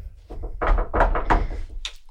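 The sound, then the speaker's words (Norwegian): A rapid flurry of dull, heavy knocks on a wooden table, fairly loud, about eight thuds in an uneven rhythm, followed by a faint brief sound. “Er det en greie dere har, å banke i bordet?”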